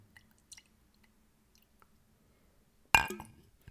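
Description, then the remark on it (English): Whiskey is poured into a glass: a single bright glass clink rings out near the end and fades quickly, preceded by a few faint, soft ticks and taps in an otherwise quiet setting, with no talking. “Okay, I'm not sure if you could hear the liquid being poured as opposed to like clinking in the glass.”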